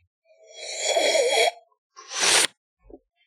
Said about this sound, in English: So when you sip, you kind of slurp it. You want to slurp it at the front of the mouth, kind of create a tiny little like pucker, pucker your lips and breathe in like that. So when you sip it, it'll kind of sound like this.